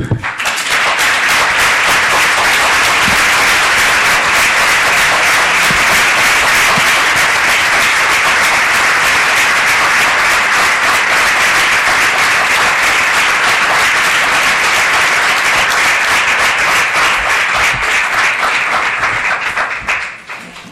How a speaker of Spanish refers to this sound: Ok, podemos pues, pues ahora ya sabéis lo que tenéis que hacer y yo, que vosotros tenéis que firmar y por supuesto vamos a aplaudirles.